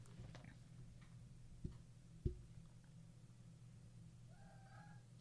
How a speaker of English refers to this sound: I think there's a cat stuck somewhere.